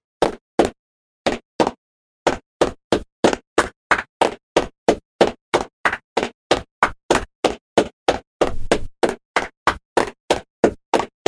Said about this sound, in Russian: Сейчас хлопать нужно таким образом. Раз, два, три, раз, два, три, раз, три, раз,